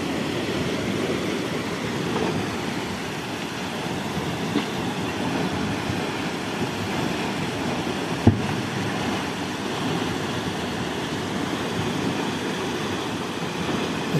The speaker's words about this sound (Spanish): Mira cómo se reventó ese tubo aquí y se está inundando todo ese edificio aquí en, en los altos. Mira cómo sale el agua a chorro.